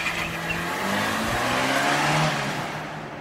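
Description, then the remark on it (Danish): A white Audi's engine roars and revs as the car accelerates hard and speeds away from a crime scene, loud, with a rising engine pitch and a hint of tire noise; no one speaks. “Kort tid efter springer gerningsmanden ind i sin hvide Audi og forlader gerningsstedet i høj fart.”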